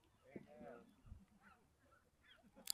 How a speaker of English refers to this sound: Trains, birds.